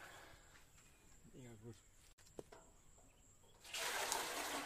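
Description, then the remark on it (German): Quiet outdoor ambience with a faint insect hum and a brief murmur, then water abruptly starts running for a camp shower, a steady hiss of spray filling the last second. “Nach der ganzen Aufregung braucht es jetzt erstmal eine Dusche.”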